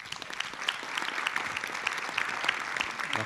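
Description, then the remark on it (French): Sustained applause from an audience welcoming a guest at an event about winemaking, a dense steady patter of many hands clapping at an even level for several seconds, with no voices standing out. “Et je vous demande donc d'applaudir chaleureusement”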